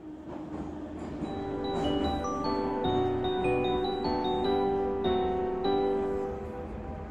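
A metro train hums steadily at a station, its electric motors giving off a tonal whine that shifts in pitch. The sound swells, holds for several seconds, then eases slightly, with no voices.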